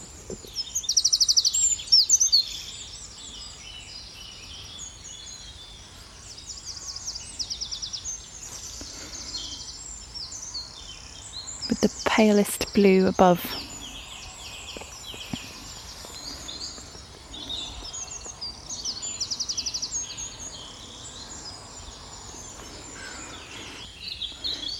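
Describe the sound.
A dense spring dawn chorus of many birds singing and chirping at once in an oak woodland in the West Country, high and continuous, with a few calls standing out and a voice briefly speaking quietly over it.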